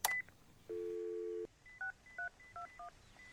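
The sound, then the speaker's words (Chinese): A payphone in a park being dialed after coins are put in: a sharp click and brief beep, a steady droning dial tone for under a second, then six short, evenly spaced two-tone keypad beeps. No one speaks. “他再次走到电话亭旁，掏出零钱，犹豫了许久，再次投下硬币。”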